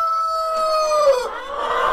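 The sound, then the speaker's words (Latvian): A rooster crows loudly, one long drawn-out call that drops in pitch at the end, with the flock of chickens at Bļodiņas clucking softly around it. “Bļodiņās ir arī sava vistu saime.”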